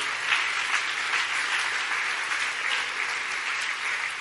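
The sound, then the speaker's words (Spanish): Steady, sustained applause from an audience giving praise to the King, a dense wash of many hands clapping at an even loudness for several seconds with no speech over it. “Dale un buen aplauso de alabanza al Rey.”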